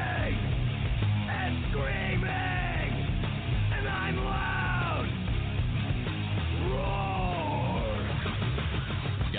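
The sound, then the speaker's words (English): Loud, dense early-90s-style heavy metal with distorted guitars and pounding drums, topped by a raw voice yelling in long strained bursts throughout, all at a constant, crushing volume, in a Geico car insurance commercial. “Like early 90s heavy metal hard. I'm yelling!”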